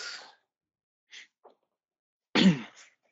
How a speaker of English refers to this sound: Cough, sneeze a few times.